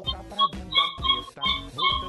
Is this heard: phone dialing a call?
no